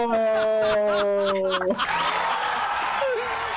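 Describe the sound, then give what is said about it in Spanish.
A sustained tonal note cuts off and gives way to a loud burst of dense clapping and crowd cheering that continues steadily to the end, applause cued at the opening of the second edition of a Friday-night programme at 23:00. “en esta segunda edición del programa de, eh, oye, cacha, me traspapelé, Vegeta Planet iba a decir, piloto al aire, el aplauso.”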